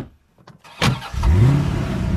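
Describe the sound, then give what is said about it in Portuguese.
A car engine cranks with a brief clatter after a moment of quiet, catches, revs upward, then settles into a steady idle rumble. No one speaks. “Entrei no carro.”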